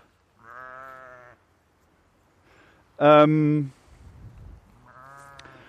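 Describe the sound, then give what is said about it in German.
A ewe that has just lambed bleats three times as she chases a dog to defend her lamb, the middle call loudest and most strained, with a brief hesitant human murmur and some low rustling between the calls. “jetzt verfolgt gerade ein Schaf mein, meinen Hund, die hat gelammt und möchte ihr Lämmle verteidigen.”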